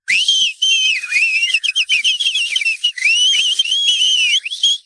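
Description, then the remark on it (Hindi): Loud, shrill whistling from several people at once, piercing tones overlapping and sliding up and down almost without pause, insistent, with no talking; a chauffeur whistling with two fingers in his mouth, joined by two tourists. “तभी एक सीटी बजी थानेदार की हौसला अफजाई के लिए मुंह में दो उंगलियां डाल शोफर ने ही बजाई थी ये देख अन्य दो सैलानी और जुड़े देखते ही देखते सीटियों की गूंज से माहौल बज उठा”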